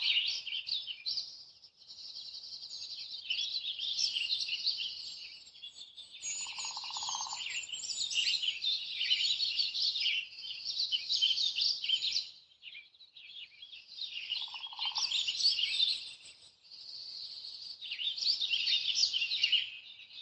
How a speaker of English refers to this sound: You can still hear the trills of the juncos down below, but they're so much quieter up here.